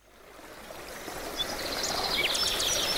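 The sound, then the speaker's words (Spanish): The Leizarán River in Guipúzcoa churns steadily over rapids in a narrow, unpopulated valley under alder trees, a broad, continuous roar that swells gradually louder, with faint high bird chirps flickering above the flow and no one speaking. “El río Leizarán se interna en Guipúzcoa desde el territorio navarro de Leiza y discurre por rápidos, presas y meandros a la sombra de una aliseda por un valle angosto y despoblado”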